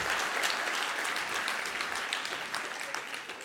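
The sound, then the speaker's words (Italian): A crowd applauds steadily for politician Armando Siri, many hands clapping in a dense, continuous patter that holds an even level throughout, with no voices standing out. “Fate un applauso ad Armando Siri che è veramente insostituibile.”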